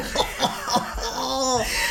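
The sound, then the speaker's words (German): Three short, rough coughs come in quick succession, followed by a strained, voiced sound like a laugh or throat-clearing as the coughing fit trails off. “du hustest noch im Grab.”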